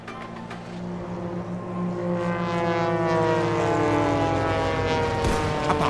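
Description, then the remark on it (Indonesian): Propeller Val warplanes drone overhead, attacking Wheeler airfield where 120 American fighter planes are lined up. Their engine roar builds from a steady hum to a louder, throbbing sweep with shifting pitch as they pass. No voices. “Pesawat Val menghajar 120 pesawat tempur Amerika yang berjajar rapi di lapangan Weller.”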